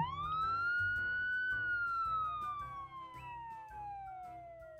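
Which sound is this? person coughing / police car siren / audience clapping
police car siren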